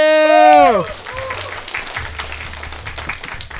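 A short falling tone opens, then an audience breaks into steady applause, a dense patter of many hands clapping that carries on evenly to the end.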